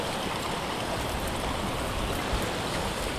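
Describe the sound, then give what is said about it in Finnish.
Steady wash of waves on the shore of Lake Vesijärvi, Finland, churning through icy slush, a continuous hissing, sloshing rush of water with no pauses or voices. “nämä isoimmat aallot ja sitten on ihan tätä jäähilettä tässä rannassa.”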